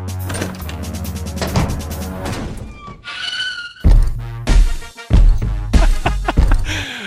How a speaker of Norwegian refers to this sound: Ja, det er noe pachinko her også. Altså, det er noe arkade, dører som åpner og lukker seg